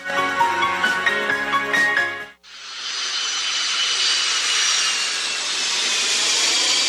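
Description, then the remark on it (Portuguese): A short burst of music in an advertisement cuts off abruptly, replaced by the loud, steady roar of a jet airplane taking off, used as a sound effect, a broad rushing engine noise that holds strong to the end. “Um avião? Não, é só minhas vendas decolando com a ajuda do aplicativo daqui.”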